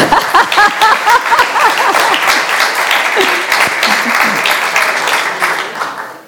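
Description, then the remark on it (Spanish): Sustained applause from a group for an author's wife, the first reader of his book, dense overlapping claps at a steady loud level for several seconds, with some voices and cheering mixed in before it fades at the end. “Eh, se merece un aplauso, ¿ah?”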